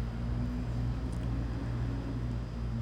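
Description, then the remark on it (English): A steady, loud low rumble of road traffic drones on throughout, cars passing on a main road that is not a highway or freeway, with a constant engine hum and a broad wash of noise and no talking. “Man, the cars are loud today. I don't usually get that much traffic noise here.”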